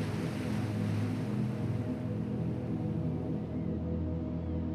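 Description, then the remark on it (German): Steady roar of ocean surf washing in continuously on a sandy beach in a wide bay, full and close, with a deep low rumble underneath and no distinct breaks between waves; no voices. “Wir stehen so nah am Meer, dass die Luft, die du einatmest, schon salzige Tröpfchen beinhaltet.”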